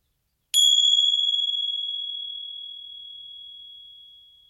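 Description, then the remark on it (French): A single gong strike, struck to end a meditation, rings out alone, a bright, high metallic tone that hangs in the air and slowly fades over several seconds amid otherwise silence. “Et quand je serai prêt, après le gong, je pourrai de nouveau ouvrir les yeux.”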